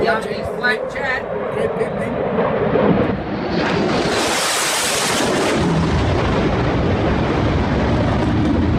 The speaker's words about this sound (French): Euh, qu'est-ce que tu penses de cet avion de chasse qu'on vient d'entendre là au-dessus de nous là Ça te fait pas rêver ça